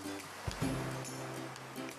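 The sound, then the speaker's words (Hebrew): A person imitates sea waves with a steady, breathy whooshing hiss that swells briefly near the start, then holds at a moderate level with a faint low hum underneath. “תעשה קולות של ים.”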